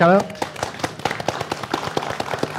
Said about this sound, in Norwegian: Mye applaus til patrion våre. Ja, applaus til patrion